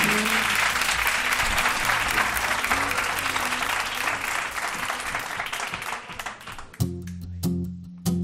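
A crowd applauds loudly with dense, steady clapping for about seven seconds, then it thins out as music with sustained tones comes in at the end.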